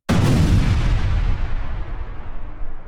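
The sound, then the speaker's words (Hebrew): A single big explosion bursts in with a sharp onset, then a deep rumbling boom rolls on and slowly decays for a few seconds. No voices are heard. “הוא אמר, פה מרגיש לי צריך פיצוץ גדול, שם פיצוץ גדול, השמיע את קולו, נתן במה לפיצוץ הגדול.”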